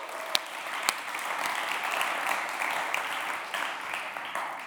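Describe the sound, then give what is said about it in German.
An audience at the Kesselkirche gathering in the Witzemann applauds steadily for several seconds, a dense wash of clapping hands with a few sharper individual claps standing out near the start. “Applaus für alle, die da sind, für euch.”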